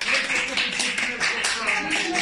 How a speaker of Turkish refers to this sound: Tunceli, Samsun, Ordu, Tokat, Hatay ve Kilis'te koronavirüsü yenen hastalar alkışlarla evlerine uğurlandı.